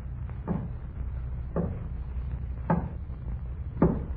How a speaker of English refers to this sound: We were sitting there eating when there was a knocking at the door.